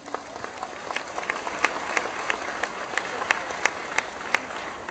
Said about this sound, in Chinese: 如果你已经来了，各位给自己一个热烈的掌声吧。